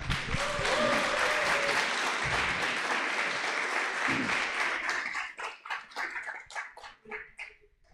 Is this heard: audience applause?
yes